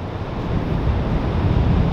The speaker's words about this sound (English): As you can see behind me, the mighty Pacific Ocean.